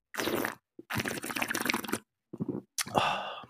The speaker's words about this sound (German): Und das mit Eiswürfeln habe ich jetzt mm. sein gelassen wegen Ton. Ah. Ich trinke mal einen Schluck. Ich, ich, ihr könnt mal hören, wie es klingt.